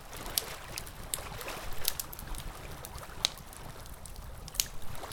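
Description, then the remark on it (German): Water sloshing and trickling, punctuated by several sharp, light clicks as wooden skewers are laid in water to soak and knock together, with no voices. “Die Holzstäbchen nun ins Wasser legen zum Einweichen.”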